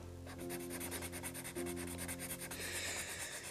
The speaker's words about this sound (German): Äh, ich weiß gar nicht, ob ihr die Filzstiftgeräusche hört.